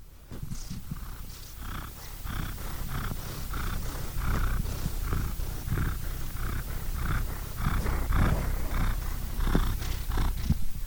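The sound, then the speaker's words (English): A cat purrs steadily and loudly, a continuous rumbling drone with a regular rhythmic pulse as it breathes in and out, with no talking. “I hope you enjoyed those cat sounds.”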